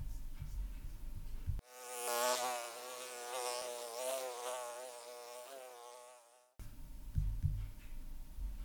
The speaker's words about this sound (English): Die Biene. The bee. Die Biene.